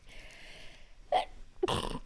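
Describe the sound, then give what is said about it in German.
A single sneeze: a brief inhaled 'ah' followed by a loud, sharp, hissy burst that trails off, with a faint background hiss before it and no talking. “Gesundheit.”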